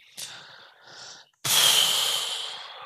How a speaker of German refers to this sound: da gähnst ne?